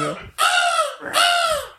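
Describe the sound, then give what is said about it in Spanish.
A person's voice imitates a crow with two loud, harsh, raspy caws in quick succession, each drawn out for over half a second. “Eso no sé lo que era, pero da igual. Eso era un cuervo.”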